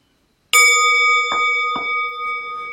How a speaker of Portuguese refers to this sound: Não precisa se mexer ainda correndo simplesmente observa o efeito do som do sino, como se fosse aquelas ondas que uma pedrinha, um seixo, faz provocar na superfície de um lago.